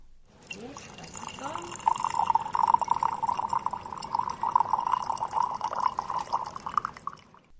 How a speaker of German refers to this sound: Die Leiterin weist die Teilnehmer zudem an, beim Tee einschenken auch Freundschaft und Liebe mit einzugießen.